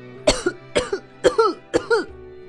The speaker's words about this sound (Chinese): 贝料一头冲进鸟窝，被扬起的草灰呛得直咳嗽。